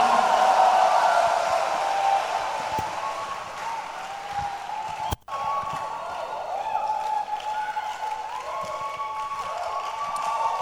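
A crowd claps steadily to welcome a reverend who is about to give a testimony, a dense, continuous wash of applause, with a brief cut in the middle before the clapping resumes at the same level.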